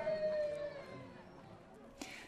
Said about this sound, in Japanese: 小さいお子さんの泣き声が聞こえましたけれども、家族連れの観光の方も非常に多いんですね。